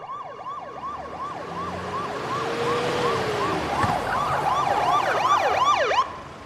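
An ambulance siren wails in a fast, repeating up-and-down sweep, loud and steady, over low traffic rumble, with a second siren tone joining near the end before it cuts off abruptly.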